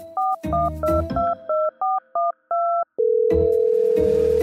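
A quick run of about nine touch-tone telephone dialing beeps, each a short dual-pitched tone, followed by a steady continuous ringback tone, all clear with no voices.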